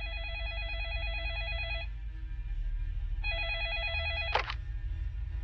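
signal or alarm, telephone ringing

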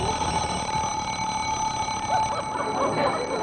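household object, alarm clock ringing

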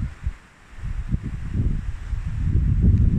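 nature, strong wind blowing outdoors

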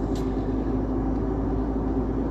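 vehicle, car driving in traffic

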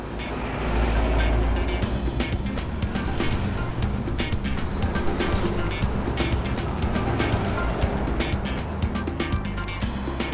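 vehicle, riding

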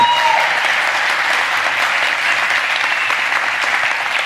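crowd, audience applause

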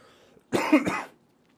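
human body sound, cough

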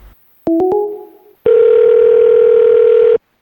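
signal or alarm, phone call ringing tone

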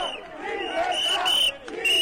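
crowd, street protest crowd chanting

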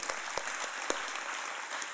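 crowd, round of applause

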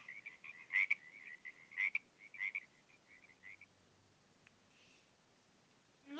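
animal, frog croaking

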